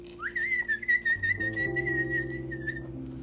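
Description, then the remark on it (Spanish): A high, warbling whistle imitates a bird singing, held as one long wavering note for a couple of seconds over a steady backing of sustained musical tones. “Sigue cantando, pajarito. Se escucha muy bonito. ¿Cómo canta el pajarito?”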